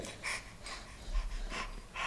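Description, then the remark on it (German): A child imitates how a dog pants when it is hot, with a quick run of about five breathy, rhythmic huffs and no speech over it. “Genau, Hechel.”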